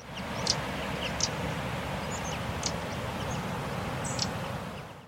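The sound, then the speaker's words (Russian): A wren's soft, crackling alarm calls come in a few short, scattered bursts, fairly faint above a steady, noisy outdoor hiss and low rumble. “А вот опять крапивник.”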